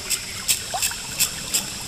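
Stream water trickles and splashes in a steady, repeating pattern, about five soft gurgling bursts over a continuous bright hiss, moderately quiet, with no voices.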